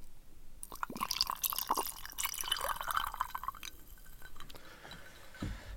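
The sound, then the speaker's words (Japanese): Denki Bran, a brandy-based liqueur, is poured into a glass of ice, a steady trickling stream with clinks and crackles of ice for about four seconds, then a few faint drips and a soft knock at the end. “まあ、まずはね、まずはいつものように飲み物を氷だけ持ってきたんで、ここに注ぎます。”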